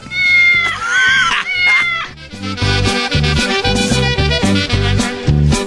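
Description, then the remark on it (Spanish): A loud cat meow, drawn out and rising in pitch, sounds near the start of a bright musical jingle for Radio Gato, which then carries on with a steady rhythmic beat. “Y Radio Gato.”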